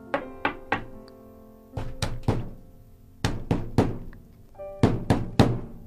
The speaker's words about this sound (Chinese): 他敲敲门：“小猪们，开门啦！我饿了。”